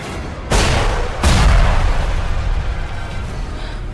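Two heavy booms land in quick succession, the second stronger, each leaving a deep rumbling roll that slowly fades, like explosions or shelling with no voices present.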